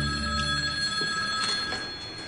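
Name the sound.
telephone bell ringing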